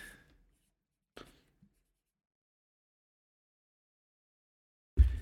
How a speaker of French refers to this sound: Fait qu'attends, je le, je le mets sur le papier.